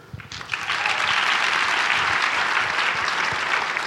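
An audience on the show Recovery Reinvented breaks into steady applause for a guest, a dense wash of many clapping hands that swells quickly after a brief start and holds at a loud, even level throughout.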